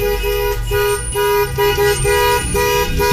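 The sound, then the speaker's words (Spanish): Car horns honk repeatedly in short, rhythmic bursts, loud and steady over a constant low rumble of traffic and crowd noise, with no clear speech, from a protest of more than 500 vehicles against President Andrés Manuel López Obrador. “Eh, se escuchaban, ahí están los sonidos, ahí están los claxons, ahí está la gente”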